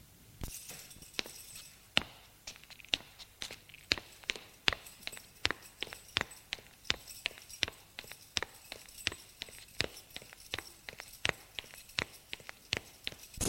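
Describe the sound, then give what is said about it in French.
Footsteps of people being led by a woman with a key up to their room on the first floor: a long run of sharp, crisp steps at a steady, brisk pace, fairly loud over a faint background hiss, with no voices. “Elle prend une clé et les guide au premier étage à leur chambre.”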